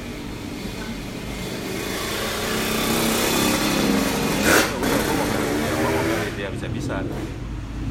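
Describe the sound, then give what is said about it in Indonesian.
A motorcycle engine revs and drones loudly and steadily, briefly swelling before easing off near the end, while a person talks and laughs over the noise. “mantap itu geberan pertama”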